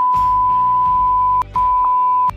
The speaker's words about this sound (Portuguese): Você sabe que eu vou bipar esses nomes todos, né?